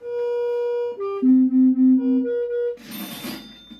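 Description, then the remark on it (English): A sequence of clean electronic tones stepping between pitches toward a target tone as a man steers them with his own brain activity, some held steadily and some pulsing in short repeated beeps, ending with a brief burst of brighter, noisier sound. “And as he manipulates his own brain activity, you hear a series of tones that are hopefully getting closer to the target tone.”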